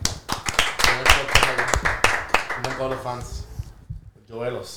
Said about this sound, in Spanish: vamos a dar un aplauso.